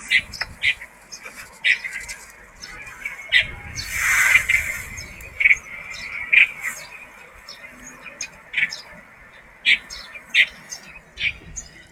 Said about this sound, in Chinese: 我可以让大家听一下我录的不同的鸟的叫声，非常好听。对，因为春天了嘛，那他们就开始他们自己的求偶动作了。